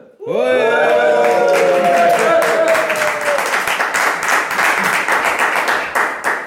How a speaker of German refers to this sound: Äh, wo hast du denn den Ton gerade herbekommen? Gibt es da so eine App, wo du so Klatschen und Applaus wirklich herbekommst?